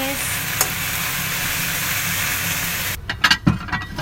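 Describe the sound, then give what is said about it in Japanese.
Steady sizzling of eggplant frying in a heavy frying pan fills the first three seconds, then the hiss drops away and a few sharp clattering scrapes of stirring follow. “30 お料理の音”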